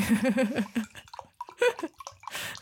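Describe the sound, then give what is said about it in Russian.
Water is poured into a glass in a short, splashy stream, moderately loud, with a brief burst of laughter-like voice at the start. “Ты вот, э, я слышу, как ты воду наливаешь, а не да, просек.”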